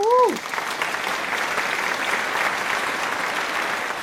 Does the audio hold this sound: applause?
yes